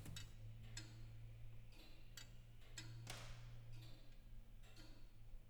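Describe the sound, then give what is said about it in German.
Steady, unhurried ticking of a floor-standing grandfather clock from 1760. A master clockmaker listens to judge its condition. Sharp clicks are spaced roughly half a second apart over a low, constant background hum, with no voices. “Ein geübtes Ohr wie das der Uhrmachermeisterin kann aber schon am Ticken erkennen, wie es der Uhr geht, wie bei dieser Bodenstanduhr von 1760.”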